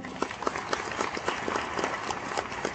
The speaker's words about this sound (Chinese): 他成立这一家艾多美公司。就是为了解决大家的问题，给艾多美公司一个掌声。